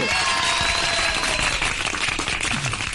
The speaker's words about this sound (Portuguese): Vamos lá, palmas. Palmas. Palmas